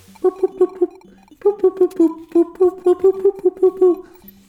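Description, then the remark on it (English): A small electronic solar-powered sounder, starved of light, clucks like a bird: rapid bursts of short, buzzy, mid-pitched chirps in quick groups of four or five, with brief pauses between runs. “it's really exciting as a designer to not know what it's going to do when the light gets low and when it starts starving from light it has no light and the bird actually starts clucking like”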